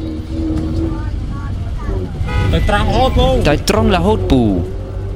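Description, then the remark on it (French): Steady low engine rumble from inside a moving bus, with a sustained horn-like tone early on and several voices talking loudly over the drone of the ride. “jean dit au chauffeur de bus de continuer tous trois”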